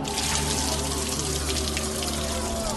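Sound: water being poured out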